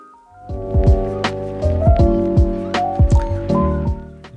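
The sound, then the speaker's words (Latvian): A short upbeat radio station jingle: sustained synth chords over bouncy, bloopy bass drops and light percussive ticks, played loud with no voices. “Jā, kā dzirdējām šajā džinglā, mums tiešām ļoti noderētu jūsu atbalsts ziedojumu formātā, lai varētu sekmi visas šī mēneša izdevumus.”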